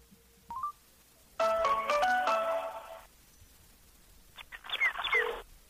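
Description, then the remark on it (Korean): A phone call being connected to a guest: a short electronic blip, then a bright melodic ringback tone for about a second and a half, a pause, and a second warbling burst. No one speaks. “그럼 전화를 연결해 볼까요? 네, 연결해 보도록 하겠습니다.”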